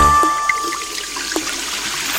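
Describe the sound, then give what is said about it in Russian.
Water pours and splashes steadily from a household flood for a couple of seconds, a continuous, fairly loud rushing trickle with a few brief drips and splats, and no voices. “Бабушка говорит, у нас стихийное бедствие А сантехник сказал, ничего, обычное дело Потоп Да уж, поменьше бы таких обычных дел Права твоя бабушка, это стихийное бедствие”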